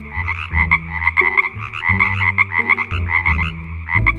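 A chorus of frogs, a group lined up at a window, croaking continuously, their rapid, overlapping calls pulsing in a steady rhythm, loud, with no voices present.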